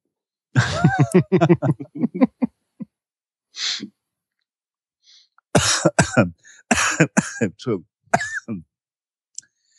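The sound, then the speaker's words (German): A single short throat clearing sounds between stretches of conversation, a brief rasp standing alone in a pause while people talk before and after it. “da hat er schon eine Räuspertaste. Und benutzt sie nicht, ne?”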